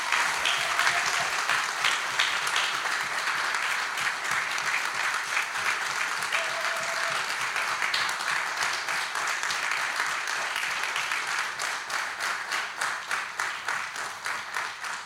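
An audience applauds steadily for about fifteen seconds, a dense wash of clapping that thins toward the end into more distinct, rhythmic claps. No one speaks over it.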